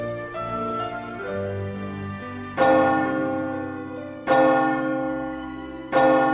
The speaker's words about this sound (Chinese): 当晚上的教堂敲出十点的钟声时，方婷也还是没有出现。